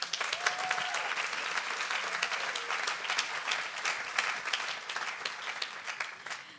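Sustained audience applause for a person invited onto the stage, a dense, even patter of many hands clapping at steady loudness throughout, with no voices standing out.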